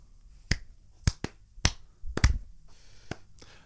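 A slow, uneven clap for Spotify: about seven or eight sharp hand claps spread over a few seconds, with one quick double clap partway through and no talking.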